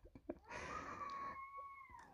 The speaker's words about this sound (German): Oh, jetzt gerade vor meinem Fenster schreit ein Kind aus Leibeskräften. Ich weiß nicht, ob du es hören kannst.